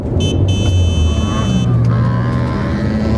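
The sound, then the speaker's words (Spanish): A car horn blares in a sustained honk for over a second while engine noise rumbles loudly underneath, as a vehicle overtakes on the right, its motor rising and falling. “¿Por qué rebasas por la derecha? Casi te pego.”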